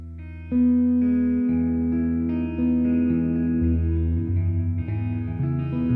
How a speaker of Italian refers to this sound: viene rappresentato con una esplosione di, di, di rock veramente eh, rumoroso in cui il trio ci dà dentro come si suol dire e mh, mm, vi faccio sentire qualche momento di questo brano così atipico.